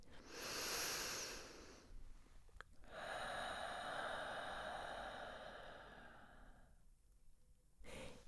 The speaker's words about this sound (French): Asseyez-vous et prenez une profonde respiration. Inspiration profonde et profonde expiration. Concentrez-vous sur votre respiration, sur l'air qui entre par le nez.